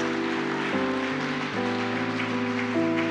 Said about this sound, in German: Und ich merke diesem, ja, lass uns diesem Jesus mal einen Applaus geben mit Schlichtheit des Herzens.